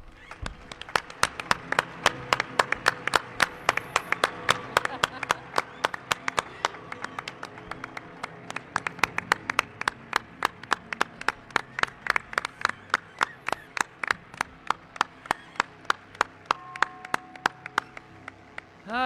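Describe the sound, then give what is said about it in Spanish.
An audience applauds steadily for the whole stretch for journalist Santiago Camacho, sharp individual claps standing out over a dense wash of hand-clapping, sustained at an even level without fading. “Quiero un aplauso para él.”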